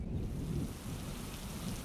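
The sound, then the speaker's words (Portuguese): Steady rain from a grey cloud on a hot day falls in a dense, continuous wash, with a low rumbling undertone like thunder. No voices, just the constant hiss and patter of a downpour. “Era um dia quente e a nuvem logo se desfez, em chuva.”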